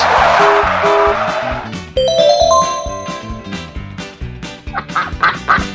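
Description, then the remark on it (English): Ducks quack in a rapid flurry of short, nasal bursts, loud, tangled with a busy, jangling musical backdrop and a rising whistle-like tone. “It scared the feathers off some ducks.”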